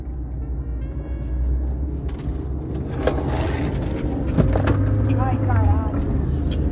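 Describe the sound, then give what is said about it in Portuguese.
Steady low rumble and hiss of a moving car's interior, a continuous engine and road drone with occasional light knocks and faint, indistinct voices in the background. “eu estou falando aqui diretamente de dentro do meu carro”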